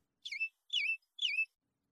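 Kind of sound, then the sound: bird, bird chirping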